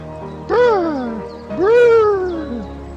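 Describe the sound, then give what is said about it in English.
A human voice imitates the call of a Nordic robin with two drawn-out, wavering glides that rise and then sag, sounding almost like meows. Loud, with a short pause between them. “with some of the most beautiful bird calls you will ever hear. The stiff nippled Nordic robin.”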